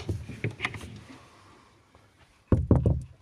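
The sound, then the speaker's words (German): A person opens their door for a package delivery, with a few scattered clunks and a soft rustle, then a brief lull before a louder burst of knocking and rattling handle sounds. “so, ich öffne meine Tür.”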